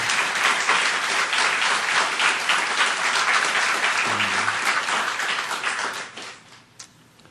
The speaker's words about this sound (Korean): 하나님께 더 큰 박수를 올려드립니다. 할렐루야.